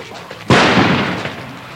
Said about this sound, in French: Une agression, agression par grenade, agression par coup de feu, c'est ce qui vient d'être joué. Il y a eu protection, réaction, protection du président avec euh, plaquage au sol, protection, arrivée des voitures immédiatement